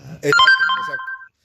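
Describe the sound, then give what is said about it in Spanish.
A mobile phone ringtone sounds for about a second, a bright sustained electronic melody that cuts off abruptly, with a brief bit of voice at the start. “No, te juro que no fui yo. Bien. Te lo juro. No. El mío no suena así.”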